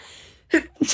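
A woman sneezes, two quick breathy bursts, the second sharper and hissing, after a moment of near silence. No talking.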